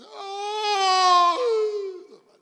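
A single drawn-out wailing lament, voiced by a person imitating the laments found in caves that lead to underground waters: high and sustained, swelling louder, then dropping abruptly in pitch before fading out.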